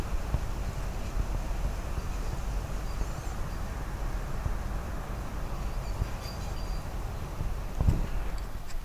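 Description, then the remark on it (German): Steady outdoor wind rushes and buffets close to the microphone with a deep, low rumble for the whole stretch, with one stronger gust thumping near the end. No one speaks. “Na, ich zeige euch jetzt mal den Wind.”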